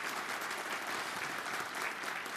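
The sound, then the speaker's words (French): A studio audience applauds steadily, a dense wash of many hands clapping at an even loudness for a couple of seconds, with no voices over it, as Amadou Amadou Soulé, Niger's Minister of the Interior, is introduced as a guest on a TV set. “Amadou Amadou Soulé, le ministre de l'Intérieur de la République du Niger, que je vous demande d'applaudir.”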